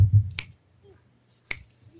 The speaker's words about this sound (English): I'm trying to think. That's why I'm snapping my fingers.